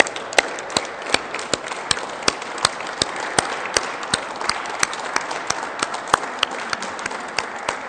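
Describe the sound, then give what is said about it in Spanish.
A crowd applauds the election of Marina del Pilar as governor of Baja California, steadily, with sharp individual claps popping out of a dense, even wash of clapping that holds at a moderate level for about eight seconds, with no voices over it. “Un aplauso para eso.”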